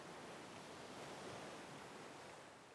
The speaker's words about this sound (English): The rhythmic crashing of the waves echoes the heartbeat within our chests